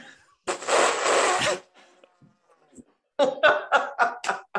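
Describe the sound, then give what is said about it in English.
A person lets out a loud, raspy, second-long blast imitating an elephant trumpeting, then after a brief near-silent pause, a run of rhythmic laughter bursts follows. “I have a six-year-old grandson, and I can do a really good imitation of an elephant.”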